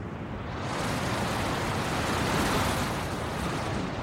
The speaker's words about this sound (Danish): Kig på bølgerne der. De bliver større og større. Så ved jeg, det blæser mere. Og se sejlene. Øj, nu bliver de helt spændt.